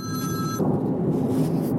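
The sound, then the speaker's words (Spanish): A telephone rings with a bright, electronic tonal chime that cuts off after about half a second, leaving a low, muffled rumble of background noise. “Vaya, sabía que me llamaban. Un segundito que voy.”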